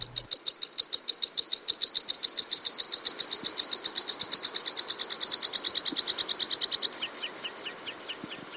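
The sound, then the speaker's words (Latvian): A water pipit, a small songbird of the wagtail family, calls in a long, rapid series of sharp, high notes that repeat steadily, shifting to a slightly different note pattern near the end, with no voices. “gada oktobrī Māris Jaunzemis Papes ezerā putnu gradzenošanas tīklos noķēra ūdeņu čipsti.”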